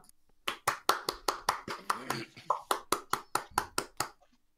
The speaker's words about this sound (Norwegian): Nei, det var, det var dårlig med applaus.